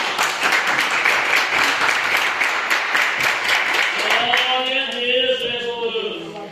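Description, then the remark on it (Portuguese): A church audience claps hands in praise to the Lord during an evening service, a dense, sustained burst of applause; toward the end, raised voices with sung or cheering tones rise over the fading clapping. “E as palmas que louvam ao Senhor nessa noite.”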